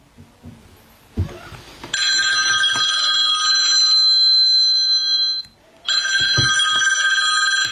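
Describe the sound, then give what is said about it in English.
An old-style telephone bell rings loudly, one long ring followed by a brief pause and a second ring starting, with no voices; apparently a phone call from Santa. “And that's apparently a phone call of Santa.”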